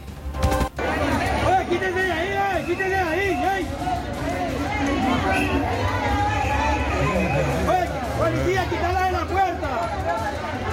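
A dense, agitated crowd hubbub of people pushing to enter a venue without queuing, many overlapping voices talking and calling out at once, loud with no pauses.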